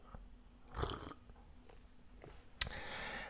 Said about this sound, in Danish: Som for eksempel, når jeg lige skal slubre lidt kaffe.